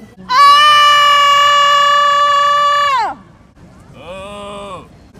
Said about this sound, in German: Das war die erste Freiwillige hier auf der Wiese, wo sich andere Leute sonnen und komisch geguckt haben, als sie angefangen hat zu schreien.